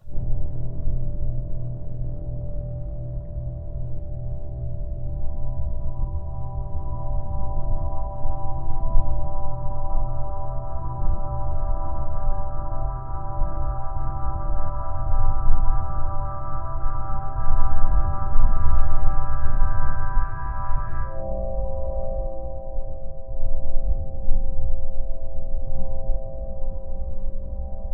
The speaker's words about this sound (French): Pourquoi vous avez décidé de capter ces vibrations à l'intérieur des minéraux et des végétaux présents à l'image